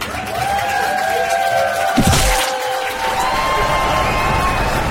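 A large crowd cheers and shouts continuously at a martial arts expert's successful record attempt of opening 68 bottle caps with his head, a dense wash of voices with a sharp impact-like burst midway, loud throughout.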